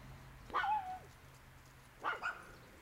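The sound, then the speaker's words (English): A neighbor's dogs bark: two short, faint bursts about a second and a half apart, the first ending in a drawn-out yelping whine, over a low background hum. “Now they're gonna start barking again.”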